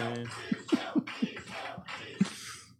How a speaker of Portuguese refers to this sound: Hum, gasgou, coitada. Gasgou. Faltou voz ali, Ai, né? que pecado.